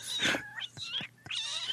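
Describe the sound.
A person imitates a cat meowing, as a cat might rap, making a quick run of three or four nasal, rising-and-falling meows in a bouncy rhythm, fairly loud.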